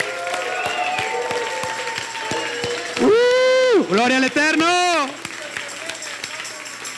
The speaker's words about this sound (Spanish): Pues nos despedimos con un fuerte aplauso, haciendo una algarabía, porque Él está aquí con nosotros habitando y nos gozamos. Amén. Vamos a darle un fuerte aplauso a las naciones.